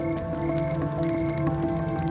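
Steady, rhythmic clip-clop of horse hooves, a few evenly spaced knocks set against a sustained humming musical drone that stays loud throughout.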